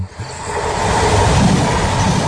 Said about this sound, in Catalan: ens n'anem ara cap a la R3. Cap al Ripollès. Doncs anem Vinga, pugem al tren.